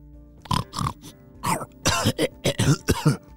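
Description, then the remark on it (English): A voice imitates Peyton the pig, a character in a children's story, with a run of about eight short, throaty grunts and snorts in quick, uneven succession, moderately loud, with no speech. “Chloe the rabbit walked outside and over towards her friend Peyton the pig.”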